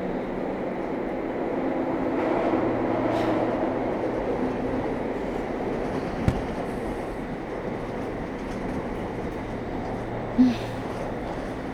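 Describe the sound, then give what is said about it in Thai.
Steady rumble of a moving train heard from inside a carriage, running longer than usual without stopping at a station, a continuous low roar with faint rhythmic track noise and a couple of brief sharp clanks, no voices. “แต่วันนี้มัน ดูวิ่งนานกว่าปกติเนาะ นี่สถานีอะไรแล้ววะ เออนั่นดิ เมื่อกี้เหมือนเหมือนกูได้ยินเสียงประกาศปะวะไม่แน่ใจวะแต่เหมือนรถมันยังไม่จอดเลยนะ”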